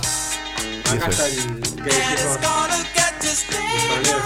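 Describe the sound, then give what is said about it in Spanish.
Lush orchestral soul music in the Philadelphia sound style, with an orchestra's sustained wind and string lines over a steady drumbeat, playing loud and full throughout, with a brief spoken phrase near the start. “El escaño, tenés la orquesta, tenés viento, este, todo muy pulcro.”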